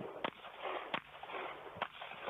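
Three muffled pistol shots go off about a second apart, each a sharp crack over a steady low rumble of background noise, fairly quiet.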